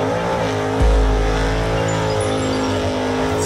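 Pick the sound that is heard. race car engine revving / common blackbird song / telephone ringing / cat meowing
race car engine revving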